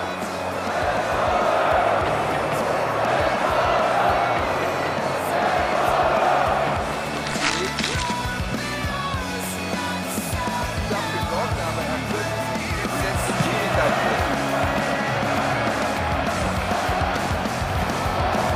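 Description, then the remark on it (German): A large football stadium crowd of fans, out of patience in the first half, roars and shouts continuously, a loud, dense wall of voices that swells and ebbs, with sharper jeering bursts standing out, sounding angry and frustrated. “Die Fans sind mit ihrer Geduld am Ende. Sie schreien ihren Frust lautstark heraus.”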